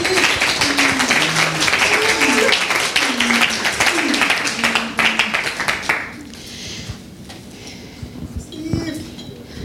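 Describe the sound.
A crowd bursts into dense, steady applause that fills the room for several seconds, with some cheering voices mixed in, then it thins out and fades to a few scattered claps.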